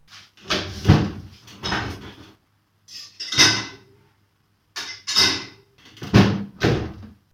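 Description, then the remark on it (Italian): Dishes being loaded into a dishwasher: several bursts of clattering clinks and knocks, with short pauses between them, as plates and racks shift. No one speaks. “Dammi qua, metto i piatti in lavastoviglie.”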